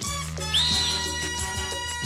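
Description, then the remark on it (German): A single short, high referee's whistle blast rises briefly above steady background music, lasting under half a second before fading back into the music. “Bei den Schiedsrichtern findet diese Pfeife jedenfalls großen Anklang”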